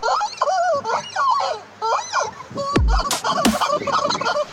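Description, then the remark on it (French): A plastic rubber chicken toy squeaks and squawks in rapid, irregular bursts as a horse grabs it and shakes it, loud, with a couple of sharp thuds partway through. “Et puis pas de sons zarbi sans poulet en plastique évidemment.”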